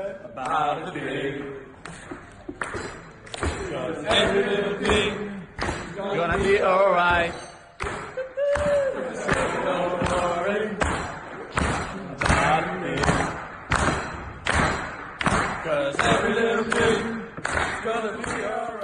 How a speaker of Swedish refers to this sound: Eh, valde ett, eh, vad ska man säga, ett tema som kanske känns lite mer Ajax och lite mer funky sådär. Det lät så här.